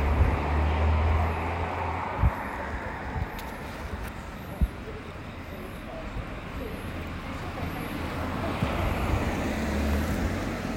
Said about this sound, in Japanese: やばいまた車の音がちょっとうるさいかもしれない